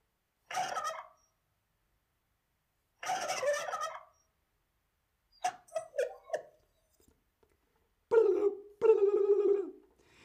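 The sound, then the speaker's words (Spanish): A turkey gobbles in several loud, rattling bursts separated by short silences, some calls broken into quick warbling notes, clear with no one talking. “Muy, muy bien, eso es un pavo.”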